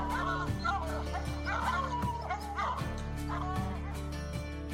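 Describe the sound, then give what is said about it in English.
Hunting dogs bark and bay at a bear, calling over one another in a steady, overlapping chorus, each call rising and falling, over a constant low background hum. “Good dog, get that bear. Get that bear here.”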